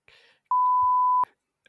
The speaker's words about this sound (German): muss ich auch piepen.